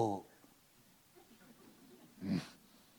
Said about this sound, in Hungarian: Együttérző tudok lenni ezzel a köhögéssel.